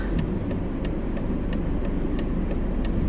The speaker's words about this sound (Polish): O, Tesla przejechała nas. Nie, to był Jaguar.